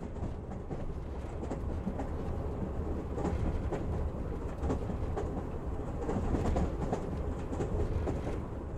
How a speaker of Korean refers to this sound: 지하철이 덜컹거리며 125번가를 지나자 나는 심호흡을 몇 번 한다.